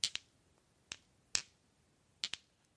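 Sharp, bright clicks of heavy, solid gemstone yoni eggs knocking together, some in quick pairs, with pauses between, crisp against a quiet background.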